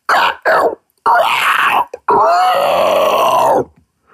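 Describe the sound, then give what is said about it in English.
A voice imitates a zombie with rough, gravelly growls and groans: two short guttural bursts, then longer rasping snarls that shift in pitch, loud and raw with no words spoken. “And then I was like, that would always take me into zombies because I would just kind of gravel that out.”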